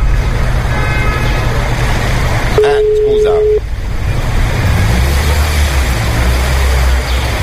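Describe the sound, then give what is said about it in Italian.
Steady street traffic rumbles outside, with passing engines and a brief car horn toot partway through, while a person speaks briefly. “Perché c'è un po' di traffico fuori, capito?”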